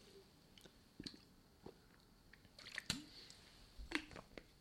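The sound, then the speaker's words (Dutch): Someone takes a quiet sip of water: a few soft slurps, wet mouth clicks and a swallow, scattered irregularly with no talking. “Nou, even een slokje water.”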